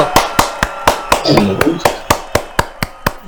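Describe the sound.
A steady run of about a dozen sharp hand claps at an even, brisk pace, loud, with a brief murmur of voices partway through.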